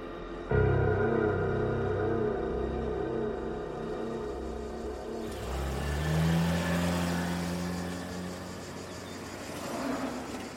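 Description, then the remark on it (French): A four-wheel-drive engine drones steadily, its low rumble shifting as the vehicle changes gear and picks up speed, with road and tyre noise underneath and no voices, as a man drives his 4x4 toward the village of Oretsa in the island's northeast around 7 a.m. on 15 November 2009. “Plusieurs mois plus tard, le 15 novembre 2009, vers 7 heures du matin, un homme, au volant de son 4x4, roule en direction du village d'Oretsa, au nord-est de l'île.”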